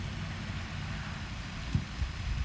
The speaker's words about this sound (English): This car just really got out there. Kind of sketchy.